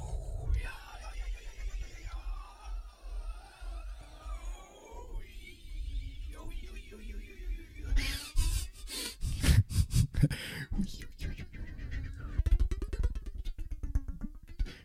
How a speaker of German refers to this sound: zeige ich euch mal, wie man den Flanger, Phaser, genau, das kann man hier nämlich mit dem Hui, Hui, so, machen wir ein bisschen so.